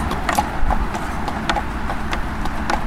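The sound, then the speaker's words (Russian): A strong horse walks uphill at Kolomenskoye, its hooves clip-clopping in a steady, even rhythm, each sharp knock distinct over a low continuous rumble of background noise, with no voices. “Это сильный лошадь, я просто его остановил сам.”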